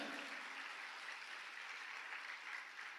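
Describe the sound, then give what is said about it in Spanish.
Steady, dense applause from a crowd fills the whole stretch, a continuous wash of many hands clapping at once with no talking over it, a loud round of applause given to the God of glory. “No, alguien dele un fuerte aplauso al Dios de gloria.”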